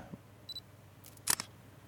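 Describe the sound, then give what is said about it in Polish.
A short electronic beep is followed by a crisp synthetic shutter click, the snap of a smartphone camera taking a photo of a document, fairly quiet with no talking. “po prostu spróbuję zrobić y, zdjęcie w obu programach z takim samym, no z tego samego ustawienia, że się tak wyrażę, ręki.”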